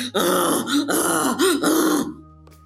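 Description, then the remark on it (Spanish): A man's voice imitates loud, donkey-like grunting in a few forceful, strained bursts lasting about two seconds, harsh, then cutting off into quiet. “O sea, el tipo era así como de.”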